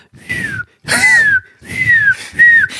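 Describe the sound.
A voice mimics one squeaking sneaker with an extremely thick, almost platform sole, stepped on at work: four short, breathy whistled squeaks, each sliding downward in pitch, spaced unevenly like footsteps, fairly loud with brief silences between.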